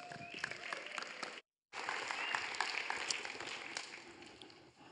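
Steady applause from an audience welcoming a speaker for the first teaching session, a dense crackle of many hands clapping at once, broken by a brief silent gap before resuming at a similar level and fading slightly at the end.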